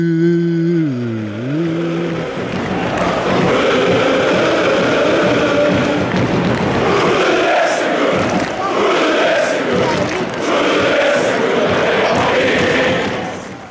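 A large crowd of football supporters chants a counting song loudly in unison, counting all the way up to 20, a dense, continuous roar of voices with a steady sung rhythm, opening with a brief wavering tone before the chanting swells in.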